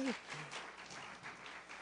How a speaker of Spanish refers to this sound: Era un aplauso a mi esposita preciosa.